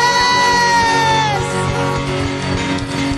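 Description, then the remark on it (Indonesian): An audience at a worship service claps and cheers "hallelujah" loudly, a sustained voice shouting over a dense, steady wash of crowd noise and applause that continues throughout. “Tepuk tangan dan sorakan haleluya.”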